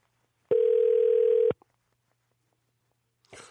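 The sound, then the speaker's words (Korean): An outgoing call's ringing tone as a KBS radio host phones a listener: a single steady, mid-pitched electronic tone lasting about a second, followed by a silent pause, with a faint noise starting just at the end. “6882님한테 전화를 한번 걸어보도록 하겠습니다”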